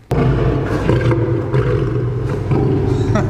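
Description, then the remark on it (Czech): A lion roars loudly, a deep, rumbling, sustained roar that starts abruptly and holds its power for several seconds without pause. “Toho lva asi nepůjde jen tak ochočit, co?”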